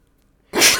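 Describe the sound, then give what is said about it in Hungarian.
A single sharp sneeze bursts out after half a second of near silence, loud and breathy with a hissing, bright edge, then trails off quickly. “Egészségedre.”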